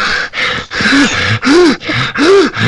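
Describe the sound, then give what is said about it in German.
A voice imitates heavy, labored breathing: about six loud, rhythmic breaths alternating in and out, some with a rising vocal groan, with no words. “der will es nicht, aber der, der atmet dann irgendwann so schwer so.”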